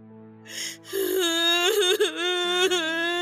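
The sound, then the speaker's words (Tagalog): A person sobbing: a short breathy catch, then a long, wavering, high-pitched wail that trembles and breaks a couple of times, fairly loud and with no other talk. “Ang sinasamid, inuubo, hindi humihikbe.”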